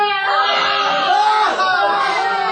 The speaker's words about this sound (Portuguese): ouvi uma gritaria que chamou minha atenção. Essa gritaria significa que Moara está subindo para a crosta.